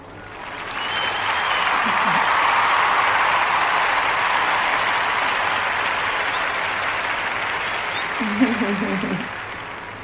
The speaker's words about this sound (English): So let's go ahead and get some claps for that.